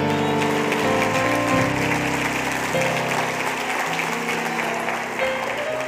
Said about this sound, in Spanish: ¿Cuántos van a alcanzar promesas? Aleluya, den un aplauso a Jesús fuerte.